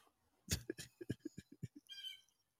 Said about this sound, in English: Like hey, um, background there? Yeah, yeah, that's my little bird. He watch out to make sure no freaking drone from the FBI are all over my house.